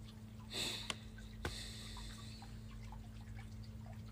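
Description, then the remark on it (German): Faint, steady babbling of water runs throughout in the background, with a brief louder splash early on and a couple of soft clicks. No one speaks, and a low hum sits underneath. “Ich ja, hoffe, man hört das Plätschern auch so ein bisschen.”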